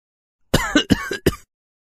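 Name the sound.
coughing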